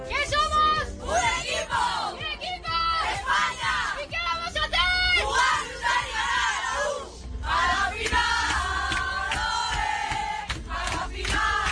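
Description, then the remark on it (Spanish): The Spanish women's national football team cheering and celebrating reaching the Copa Algarve final, loud, with overlapping shouts, whoops and high-pitched yells sustained throughout without pause. “Venimos cargados de buenas noticias hoy porque el fútbol femenino está de fiesta y así suena esa fiesta.”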